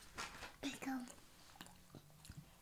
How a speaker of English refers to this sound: Okay. And then I just, you know, make sure, oh, okay. And then just make sure, close your mouth when you chew.